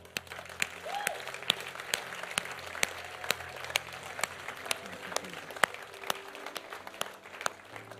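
A church audience gives a clap offering, applauding steadily for several seconds. It is a dense patter of many hands with sharp individual claps standing out, moderately loud and continuous throughout with no talking over it.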